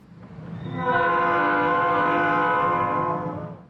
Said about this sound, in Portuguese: Em outros momentos, o pause será solicitado após o sinal sonoro do apito do trem.